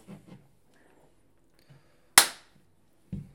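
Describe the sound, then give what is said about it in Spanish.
A single sharp, loud hand clap, given to sync a recording, rings out on its own with a short echoing decay, preceded and followed by faint, quiet background murmurs. “¿Puedes dar el aplauso,”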